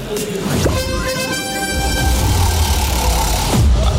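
A radio contest alert blares, signalling listeners to sign up by SMS: a loud, sustained horn-like tone with a buzzy, harmonic edge, holding for about three seconds over a low rumbling backdrop, with no talking.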